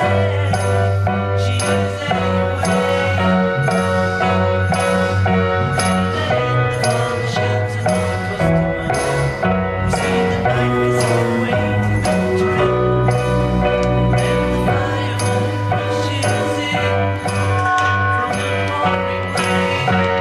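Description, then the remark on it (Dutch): Three overdubbed piano tracks play together in a dense, steady stream of chords and repeated notes, loud, filling the whole stretch with no voices. “dus drie piano's”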